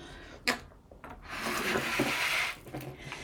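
A balloon held in the hand is blown up, a steady rush of breath lasting about a second after a few short rubbery squeaks and handling sounds; no one speaks.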